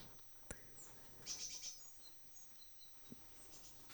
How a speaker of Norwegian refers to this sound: Det er masse fugler her. Hihi. Det er koselig.